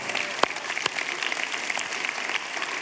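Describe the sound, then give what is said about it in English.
A crowd at a church service claps steadily in a dense, continuous wash of applause to thank the preacher after his sermon, with a couple of sharper individual claps standing out near the start. “Hey, help me to thank Dave.”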